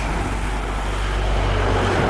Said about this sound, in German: Wahnsinn, wie viel Verkehr da ist, oder? Cool. Das ist ein so kleiner Ort, mhm. aber wieder. Da donnern es durch die Autos. Da donnern es echt durch.